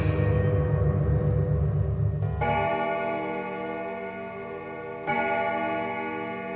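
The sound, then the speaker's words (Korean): A pendulum wall clock strikes midnight, with two deep, resonant chimes about three seconds apart, each ringing out and slowly fading. A low hum comes before the first strike, and no one speaks. “자정을 알리는 괴종 시계 소리가 12번이 울리기 시작했습니다.”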